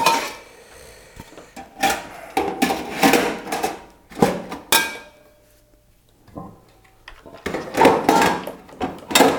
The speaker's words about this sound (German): Ja, ja, ich räume die Töpfe jetzt wieder ein, die ich gerade raus habe und äh, die sind jetzt schön sauber. Die Schublade ist sauber, die Töpfe waren es ja vorher schon